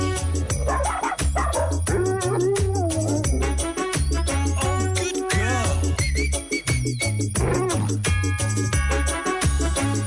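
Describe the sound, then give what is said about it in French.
A dog barks and whimpers repeatedly, yelping and whining in rising and falling tones, set against a loud, steady musical backing with a thumping bass line. “bah, c'est pour le chien.”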